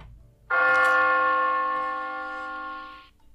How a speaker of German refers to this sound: Was wir dann hören, ist ein Glockenturm, nämlich den Glockenturm von Big Ben.